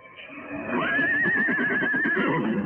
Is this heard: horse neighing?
yes